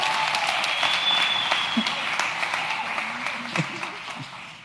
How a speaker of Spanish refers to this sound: Un aplauso